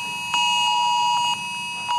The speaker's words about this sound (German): Um 11 Uhr hat sich der bundesweite Probealarm auch bei uns in Essen bemerkbar gemacht. Die Handys, ja, die haben alle einen Alarmton abgegeben.